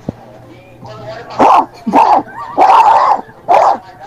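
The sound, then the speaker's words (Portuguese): A man's voice imitates a dog barking, giving four loud, raspy woofs in an uneven rhythm, after a brief quiet lead-in. “Oi, meu, vou imitar um cachorro aqui pra ti, tá?”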